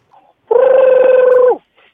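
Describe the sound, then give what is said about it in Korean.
A voice imitates a subway train with one steady, buzzing, slightly pulsing hum held for about a second before it cuts off. Faint, brief sounds come just before and after. “지하철 소리 갈 수 있을까요?”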